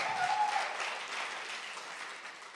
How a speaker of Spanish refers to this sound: Un aplauso para los jóvenes.